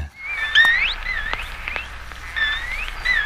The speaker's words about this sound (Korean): 돌고래 참그 어, 눈이 귀엽게 생겼잖아요. 물론 입도 그렇지만 인간하고 참 친숙하고요. 돌고래 소리 다시 한번 듣죠. 네.